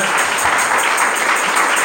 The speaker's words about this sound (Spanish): Denle un aplauso al Señor, por favor, esta mañana.